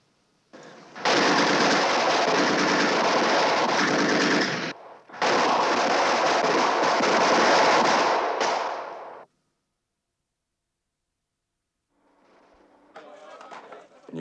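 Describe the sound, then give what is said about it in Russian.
Two long, loud bursts of gun salute fire in honor of combat friendship with the soldiers and commanders of the 176th Rifle Division, each a dense, rapid crackle lasting several seconds with a brief gap between, followed by quiet and then faint sounds. “Товарищи бойцы и командиры 176-й стрелковой дивизии, в честь боевой дружбы! Салют!”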